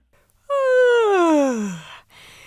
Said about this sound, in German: Sie musste wieder gähnen.